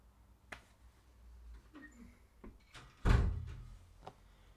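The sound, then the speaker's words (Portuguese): A bedroom door shuts with a solid thump about three seconds in, preceded by a few faint clicks and rustles of handling; no one speaks. “Pá, fecha lá, pá!”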